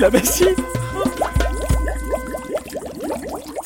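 Rapid little bubbling and glugging as air escaping from a warmed flask through a tube bubbles into a basin of water, a quick irregular train of small pops and blips, fairly clear, with a low rumble underneath.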